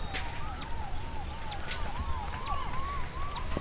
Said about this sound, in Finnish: Täältä kuulosti Ngomenin kylässä viiden tunnin ajomatkan päässä Nairobista, kun ihmiset yrittivät hädissään häätää sormenkokoisia sirkkoja pois viljelmiltään.